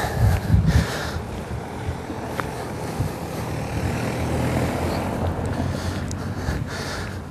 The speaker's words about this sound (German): Ähm, lassen wir mal kurz das Auto vorbei.